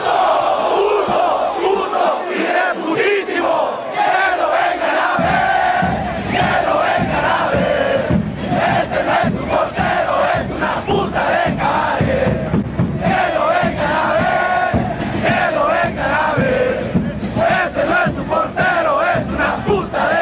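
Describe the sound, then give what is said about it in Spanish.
A huge football stadium crowd roars the homophobic goal-kick chant in unison, thousands of voices swelling together continuously for the whole stretch, dense, with no single speaker standing out. “e incluso donde más se ha visto es en los Estados Unidos con los paisanos que cuando México no está dando la cara, cuando México no está dando los resultados, es cuando se ve más o se escucha este grito tan señalado como homofóbico.”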